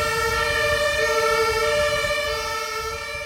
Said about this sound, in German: Wollen wir warten, bis der Krankenwagen fährt? Ich weiß gar nicht, ja. ob man den so gut im Podcast hört, aber.